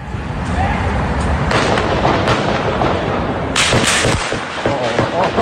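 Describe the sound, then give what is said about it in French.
Heavy gunfire from several people firing long guns rings out in several loud, booming bursts echoing off buildings over a constant rumbling, noisy background, with sharper blasts clustering toward the middle and end. “un petit extrait d'une des, des vidéos qui circulent pour vous donner un peu le son de, ces armes qui, frappent bien en ce moment.”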